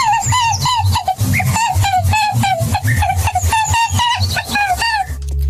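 A rabbit squeaks in a rapid, continuous string of high, pinched chirps, close and fairly loud, with no talking over it.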